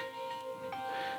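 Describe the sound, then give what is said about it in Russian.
A smartphone news notification chimes: a short electronic alert of steady, clear tones that sound for about a second at moderate volume, with no one speaking. “Это мой телефон вдруг какую-то новость выдал.”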